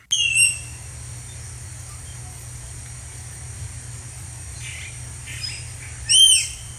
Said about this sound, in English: That's a small sound for a big animal called a tapir. It looks somewhat like a big fat pig, but it's not. It lives in Central America and South America, Southeast Asia as well. Most are about six feet long and they weigh between 330 and 700 pounds.